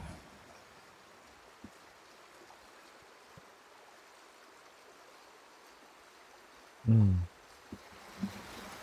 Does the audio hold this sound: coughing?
no